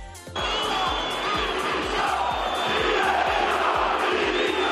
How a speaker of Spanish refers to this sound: Una vez más, grito de directiva de dimisión.